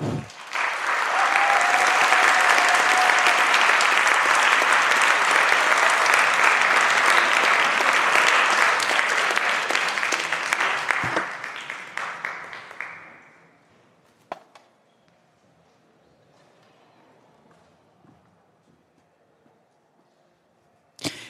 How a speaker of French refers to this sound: Je vous demande d'applaudir chaleureusement, vous aussi derrière votre ordi, Wendy Delorme.